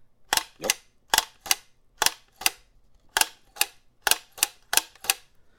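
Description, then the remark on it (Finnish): An old Kodak Brownie camera shutter clicks six times in succession, each release a sharp double snap like a quick clunk-clunk, with short quiet gaps between and no talking. “Eli mä varastin tämmöisen Kodak Browni. Oikeasti, loistava. Tässä on hieno tämä suljin ääni.”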